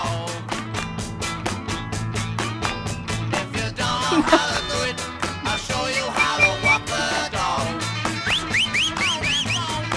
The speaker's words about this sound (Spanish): ¿Escuchó ese silbido? Sí. ¿Quieres escucharlo de vuelta? Sí. A ver.